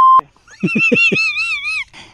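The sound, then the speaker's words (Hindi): A single short, loud electronic beep as a phone call cuts off because of a network problem, followed by a wavering, warbling tone with a few soft pulsing thumps underneath, then quiet. “hello hello network का थोड़ा problem है फोन कट जा रहा है”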